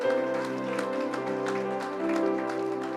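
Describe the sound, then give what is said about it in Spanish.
An audience at a church service claps along as applause for God in a steady, even rhythm over sustained musical tones, the sharp hand claps repeating roughly three times a second throughout. “Fuertes aplausos para nuestro Dios.”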